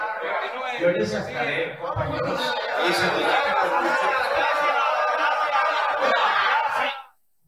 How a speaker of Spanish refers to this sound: Bueno, este fue el abucheo